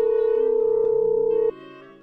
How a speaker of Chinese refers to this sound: 电话嘟嘟两声，另一边就接通了，好像是一直等着他联系似的。